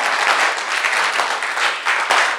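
An audience claps for Jesus in a dense, steady burst of applause, many hands overlapping into a continuous bright rattle with small surges in loudness and no voices standing out.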